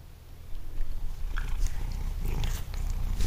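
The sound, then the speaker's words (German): A pet tomcat purrs with a steady low rumble while playing; quick rustling, nibbling and scuffling sounds of play break in throughout; no one speaks. “Das ist mein Kater, wie er leibt und lebt, ne?”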